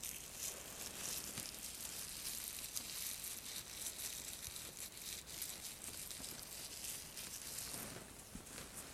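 Soft, steady crinkling of plastic gloves and a doctor's coat rustling during a head-to-toe medical exam, a continuous papery crackle with tiny sharp snaps scattered throughout, fairly quiet and without any voices.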